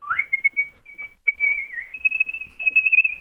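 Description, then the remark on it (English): A champion whistler whistles a bright, melodic tune, with quick ornamented trills and sustained notes sliding between pitches, clear and prominent with no talking. “When did you learn to whistle or realize what an incredible whistler you are?”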